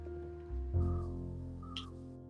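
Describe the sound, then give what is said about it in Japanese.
A crow caws twice, a short harsh call followed by another about a second later, over a steady low droning hum. “カラスもそうだねって言ってくれてるんで言ってる言ってる”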